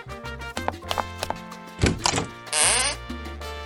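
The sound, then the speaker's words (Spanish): A door is opened for arriving friends over steady background music: a dull thunk of the latch, then a brief creaking, hissing swing that fades out. “camina a la puerta y abre la puerta.”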